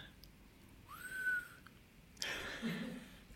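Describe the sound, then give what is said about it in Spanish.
A person practicing a whistle whistles one short, rising note that holds briefly, then stops; a burst of rustling, breathy noise follows. No one speaks. “No, estaba practicando lo del chiflido.”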